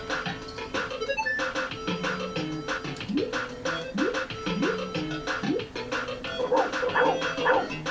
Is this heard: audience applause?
no